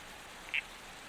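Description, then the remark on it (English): A male red-crowned toadlet frog, no bigger than a grape, perched guarding its eggs in Dharawal country, gives a single short, high chirp, heard once and fairly clearly against a steady, soft background hiss with no voices. “Your protector looks unlike any other frog species in Dharawal country.”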